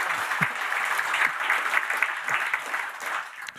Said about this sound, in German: dein Applaus wird gleich noch kommen.